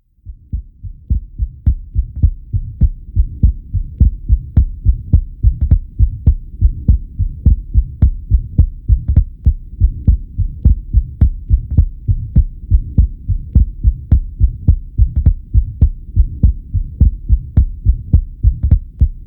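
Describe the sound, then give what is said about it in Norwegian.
A fast, steady heartbeat thumps loud, with a faint soft systolic Still's murmur riding along between the beats, continuing evenly throughout with no voices. “Det er en svak systolisk bilid som sniker seg med.”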